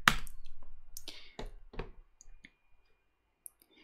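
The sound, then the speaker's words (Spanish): A handful of sharp computer mouse clicks at irregular intervals, with a few soft rustles between them and quiet stretches, ending in one last crisp click. “Entonces, eh, le vas a dar clic aquí.”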